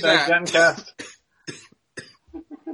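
A man coughs hard and close: a loud, raspy fit at the start, then a string of shorter, weaker coughs trailing off with brief pauses between them.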